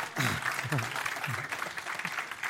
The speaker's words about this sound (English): How about them hornets? They won Friday night and they ended an 18 game losing streak. Come on, let's clap again.